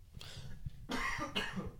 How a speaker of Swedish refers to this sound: Sluta nys och hosta. Förlåt.